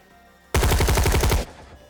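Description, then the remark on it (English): A loud burst of machine gun fire during a battle inside a smoke-filled warehouse, a rapid, evenly spaced rattle of roughly a dozen shots lasting about a second, then cutting off into a faint low hum. No voices. “especially given the incessant firing and the distortions offered by the smoke, which lingered.”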